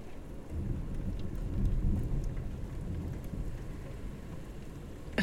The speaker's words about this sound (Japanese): めっちゃ雷鳴ってる。